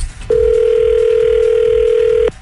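A phone line rings out while a call is being placed: one steady, loud two-second ringback tone, starting and stopping abruptly over a faint low background rumble.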